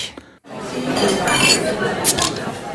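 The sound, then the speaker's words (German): Coffee cups clink together in a quick toast, a couple of bright ceramic taps over a steady room murmur with faint voices; the cups hold coffee from Uganda. “Also zum Wohl, Michi. Chin Chin.”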